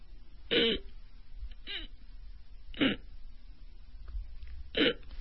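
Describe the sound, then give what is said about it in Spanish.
A voice imitates the choked, blocked breathing of sleep apnea, with air stuck at the throat: three short strained gulping bursts, roughly two seconds apart, fairly loud, with quiet breathy pauses between them. “Entonces, los pulmones siguen trabajando, quieren aire, pero no pasa aire porque se atoró a nivel de la garganta.”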